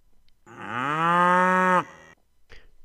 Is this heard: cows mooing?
yes